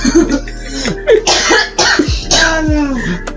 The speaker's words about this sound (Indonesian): Jangan batuk. Jangan batuk dong.